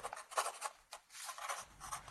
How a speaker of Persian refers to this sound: من صداهایی که تو سکوت شب میشنوم و خیلی دوست دارم. مثل صدای همین قلمی که دارم باهاش روی کاغذ می نویسم